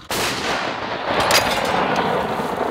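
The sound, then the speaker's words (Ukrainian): An artillery cannon fires with a sudden, loud blast, and its heavy rumble and echo roll on for a couple of seconds afterward, with a few sharper cracks in the tail. No one speaks. “Постріл! Постріл!”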